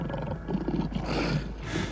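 lion roaring

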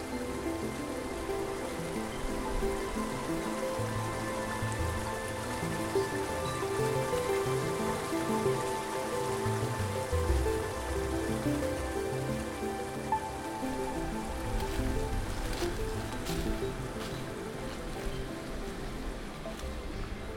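rushing water

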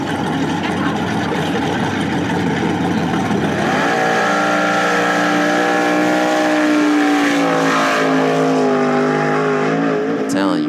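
car engine revving

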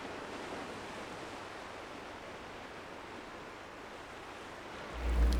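sea waves

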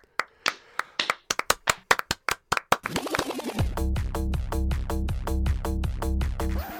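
hands slapping

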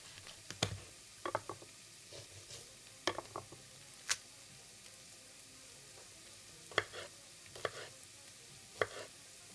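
vegetables sizzling

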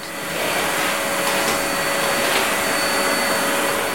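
vacuum cleaner running

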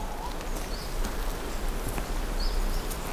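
birds singing at dusk

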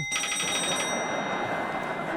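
telephone bell ringing

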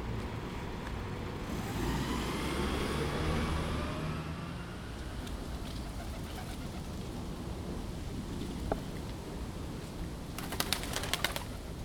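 birds

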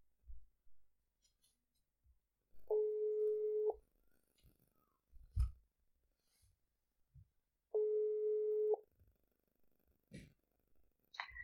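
telephone ringing tone

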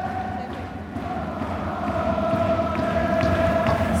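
football stadium crowd ambience

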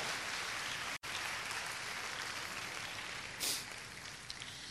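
audience applauding

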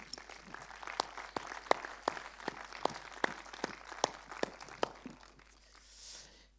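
audience applauding

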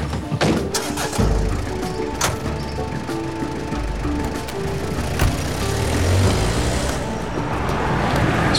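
car driving

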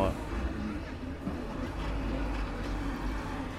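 car passing by

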